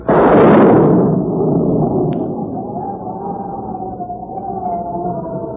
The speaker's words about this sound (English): Could that possibly be thunder? It sure sounds like a storm coming up